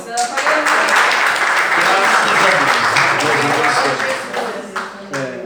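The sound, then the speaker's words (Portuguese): A church audience applauds steadily during a service, a dense, loud wash of many hands clapping that holds for several seconds, with voices mixed in underneath before it tapers slightly at the end. “Agradeço a oportunidade e as palmas logo, Senhor.”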